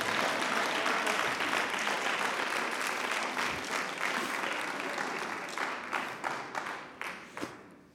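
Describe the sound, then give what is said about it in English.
A church audience applauds as worship with steady, dense clapping that gradually thins out, ending in a few louder scattered claps as the applause dies down. “You need to clap your hands.”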